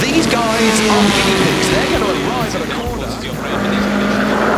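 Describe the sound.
A rally car's engine roars and revs loudly throughout during the first stage of the 2021 Russian rally championship in snowy Karelia, rising and falling in pitch over gravelly road noise, with a voice partly buried beneath the din.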